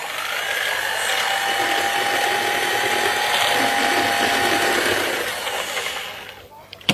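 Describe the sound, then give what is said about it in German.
A kitchen mixer, the RG28, blends a drink of light beer, sugar, a whole egg and pepper until foamy, its motor whirring loudly and steadily with a thin high whine for about six seconds before abruptly shutting off. “Das Ganze wird dann mit dem RG28 gemixt.”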